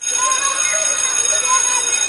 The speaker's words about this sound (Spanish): Efectivamente, la campana de que nos vamos al recreo, porque volvemos a tener otro recreo.